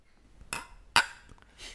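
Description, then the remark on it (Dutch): Beer glasses clink together in a toast during a beer tasting, two bright, ringing knocks about half a second apart, the second sharper and louder, with no talking. “Laten we dan eh, gaan eh, klinken.”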